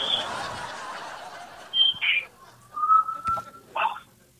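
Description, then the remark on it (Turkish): A parrot lets out several sharp, high whistles and squawky calls in quick bursts, with a faint murmur of background voices early on. “Tuhaf sesler ya, derken papağan, istersen papağan önden bir bağırıyor da.”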